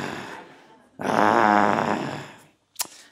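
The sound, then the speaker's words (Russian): A person voices a growl: a low, rough, rumbling rasp that swells loudly for about a second and a half, then fades. A faint throaty onset comes before it, and a short sharp click follows. “Начинала ворчать, да, ну и как-то это чаще всего бывает в Якутии, начинала рычать.”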